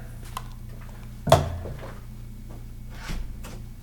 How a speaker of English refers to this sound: It went away because I had to close the fucking door because I don't prepare.